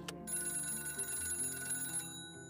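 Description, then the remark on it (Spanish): A telephone rings with a steady, bright electronic tone lasting about two seconds as a neighbour calls, then cuts off, leaving a faint low hum. No one speaks. “Suena el teléfono.”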